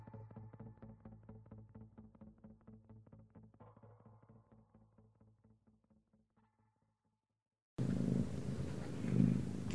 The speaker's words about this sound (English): I hear a cat.